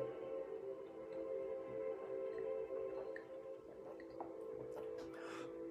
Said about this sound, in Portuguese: Deixa eu só beber uma aguinha aqui, prepare a sua também, que nós vamos fazer a nossa oração.